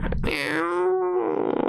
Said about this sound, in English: That's a cat.